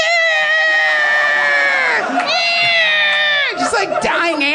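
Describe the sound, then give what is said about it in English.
A person's voice imitates cows being slaughtered with loud, strained, drawn-out bellowing wails: one long cry that bends downward, then a second, breaking into ragged yelps at the end. “But I swear to God, I was sitting in there eating, and all of a sudden, underneath the music, it was like they were playing the sound of cows being slaughtered.”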